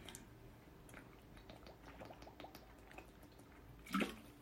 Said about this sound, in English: Let me have a glass of water first.